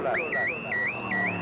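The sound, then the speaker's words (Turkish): A loud electronic toll booth alarm wails in a steady two-tone pattern, switching between a higher and a lower pitch about three times over a faint rumble, sounding as race cars without OGS toll tags pass through the Bahçeşehir toll booths in Istanbul. “Başkanım bu ses nedir ya? Araçlar gişelerden geçerken alarm veriyor.”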